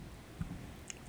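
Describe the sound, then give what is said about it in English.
A dog chewing on a chair, heard as a few soft gnawing crunches and a brief sharp click over quiet background, with no talking. “That's my dog chewing on the chair.”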